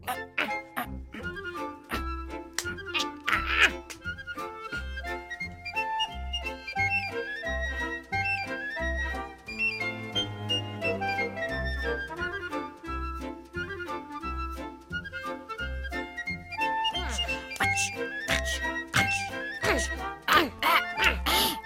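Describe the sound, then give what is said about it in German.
Steady marching footsteps tramp along in a goose-step march, an even, regular beat for about twenty seconds, fairly loud, with bright honking, quack-like tones layered busily over the rhythm. “war nicht schlecht. Unser Gänsemarsch.”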